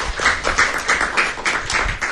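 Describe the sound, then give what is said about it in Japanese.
A short burst of applause from a few people, with sharp, bright claps falling in a quick, fairly steady rhythm at moderate loudness, no voices over it. “今日はなんか拍手いただいてね、気持ちよく喋ってます”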